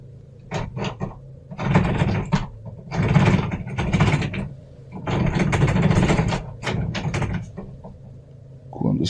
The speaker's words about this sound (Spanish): escuché cómo intentaban abrir mi puerta, girando la llave y empujándola.